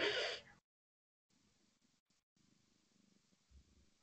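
A cat: a short loud burst, a moment of silence, then a soft, steady low purr rumbling for a few seconds with no one talking.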